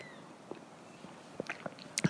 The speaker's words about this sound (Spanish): Voy a darle un trago a mi café